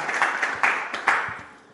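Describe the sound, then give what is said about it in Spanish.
An audience applauds for the Lord Jesus Christ at a church service, many hands clapping in a dense, steady patter with a few louder bursts standing out, gradually tapering off toward the end. “Regale un fuerte aplauso al nuestro Señor Jesucristo.”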